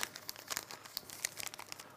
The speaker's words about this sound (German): Und irgendjemand kommt es vielleicht in die Hände, der nicht so nett ist und der zerknüllt einen 50-Euro-Schein.